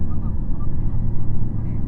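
A JR Shikoku 2700 series diesel railcar on the Nanpu No. 20 service from Kotohira to Okayama, heard from inside, its engine and wheels producing a steady, heavy low rumble that drones on without a break for the whole moment.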